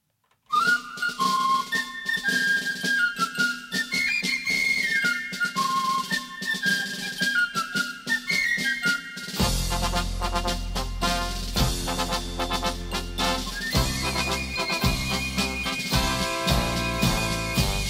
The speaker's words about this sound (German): Aber wir haben lustige Musik, die zum Karneval passt.